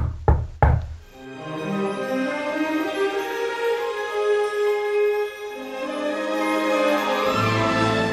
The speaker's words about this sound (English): There's a knock on the door.